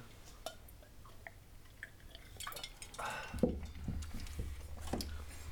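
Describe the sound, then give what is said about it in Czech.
Quiet sipping and swallowing of bourbon and Sprite with ice after a toast, with small glassy clinks and soft liquid sounds, growing a little busier toward the end. “tak na zdraví”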